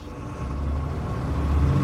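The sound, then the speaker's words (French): A car engine drones steadily as the vehicle drives uphill on winding mountain roads, a continuous low rumble that strains slightly louder toward the end, with no voices. “La voiture a alors débuté la montée.”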